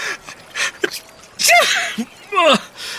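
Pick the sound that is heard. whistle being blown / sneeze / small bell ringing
sneeze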